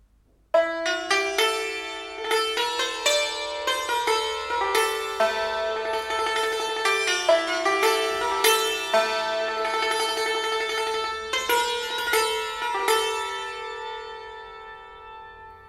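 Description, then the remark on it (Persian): Persian classical music in dastgah Shur, played on a bright, struck string instrument: dense ringing notes with a steady pulse, returning often to the central note Sol (G), with no voices. “حالا یک بار دوباره این بستر سوتی رو گوش کنید و من روی سل تاکید میکنم که بیشترین احساس رو درک بکنید”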